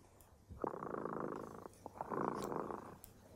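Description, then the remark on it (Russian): A cat named Tremota purrs in two long rumbling bursts, each lasting about a second, with a brief pause between them. No one is speaking. “Слышите? Наш кот Тремота запел свою песенку.”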